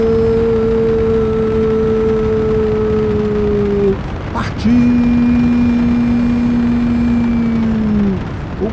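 A rocket engine roars steadily at the ignition and liftoff of Brazil's Pioneira rocket, a loud rumbling drone with a humming tone on top. It briefly cuts out about halfway, then surges back and sags slightly in pitch toward the end as the engine seems to lose power.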